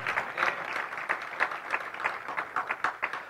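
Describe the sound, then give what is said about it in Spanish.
A room full of people claps for Christ in steady, dense applause, many hands overlapping into a continuous patter of sharp claps at moderate volume, with no talking over it. “Dele un aplauso a Cristo, aleluya.”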